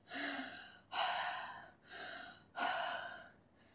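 panting

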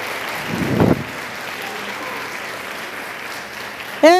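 audience applauding

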